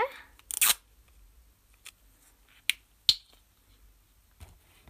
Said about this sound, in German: Du öffnest deine Acrylfarbe.